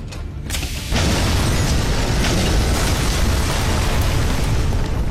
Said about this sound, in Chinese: 没想到公交车还是爆炸了。